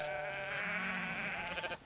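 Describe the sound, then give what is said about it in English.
A single drawn-out bleat from a badly injured sheep, its face mauled, chest wounded and front legs dangling, stuck on a ledge; loud, holding a strained, quavering pitch for nearly two seconds before breaking off abruptly; no other sounds or voices. “I bent and wedged my hands beneath the bleating sheep's shoulders I tugged and tugged, but the ledge would not let go.”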